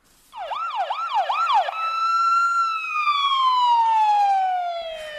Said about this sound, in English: It's the sound you never want to need to hear, but when you're anxiously waiting for an ambulance, that siren is the most comforting sound in the world.